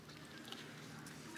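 A quiet, close-up sip from a drink, with soft wet mouth sounds and a brief slurp near the end, and no talking.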